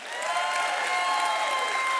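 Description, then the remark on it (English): A large crowd at Valley Real Life claps steadily and continuously to welcome a speaker, the applause swelling in at the start and holding at a full, even level throughout, with no speech over it. “Hey, let's give it up for”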